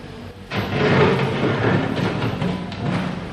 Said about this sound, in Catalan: Aquí veiem una excavadora, aquest xoc que sentim. I si us hi fixeu ja se sent que està rascant el formigó per sota l'aigua. No el veiem, però ja estem, ja estem aquí.